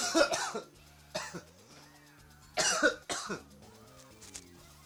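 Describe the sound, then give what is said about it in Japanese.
A run of harsh, explosive coughs comes in clusters, two quick bursts, a pause, then a louder pair, with a low tonal hum lingering underneath between the fits. “それは困るな咳ごとき”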